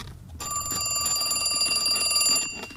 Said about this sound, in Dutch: De telefoon gaat. Er zit een Duitser bij. Hij wenkt mij. Ik moet de hoorn oppakken.